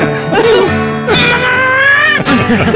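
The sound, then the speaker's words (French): A pet cat, Minou, lets out loud, drawn-out meows: a rising wail followed by a long, sustained yowl and a shorter cry at the end, with no pauses between. “minou, mon petit chat mignon, j'étais un peu étourdi.”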